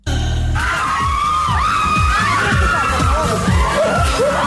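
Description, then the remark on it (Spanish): A crowd of voices screams and shouts excitedly, loud and continuous, with overlapping high-pitched yells rising and falling over a dense roar and rapid rhythmic thumping underneath. “Con tanto grito, ¿quién es?”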